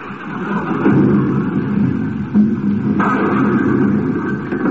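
A heavy, steady rumble of a bowling ball rolling down the lane, with a couple of sharp knocks near the end as the pins clatter and all of them are knocked down for a strike. No voices are heard.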